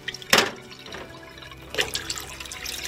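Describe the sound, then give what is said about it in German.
Water is poured into a container in portions equal to a cabin volume, in two short, splashy bursts about a second and a half apart, with a faint liquid trickle between them and no voices. “Ich gieße entsprechend Kabinenvolumen dazu.”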